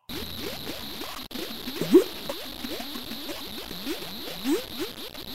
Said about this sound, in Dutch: We hebben gewoon het geluid van een modderpoel hebben we de ruimte ingeschoten.